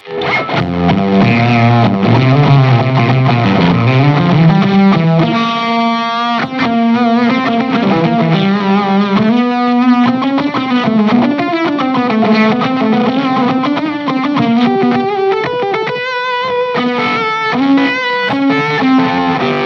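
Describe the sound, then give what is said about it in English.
A heavily distorted electric guitar played through a noise gate plays loud, continuous riffs and sustained notes, with brief abrupt cutoffs where the gate chops off the sustain and the sound drops out sharply between phrases instead of ringing on. “The gate works like it's it's it's chopping off the the sustain or yeah See, okay, so that's our most like modern take of this sound.”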